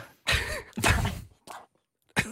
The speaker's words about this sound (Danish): Undskyld, jeg hoster. Det er i orden. Det er min... Øh, jeg har løbet så meget her.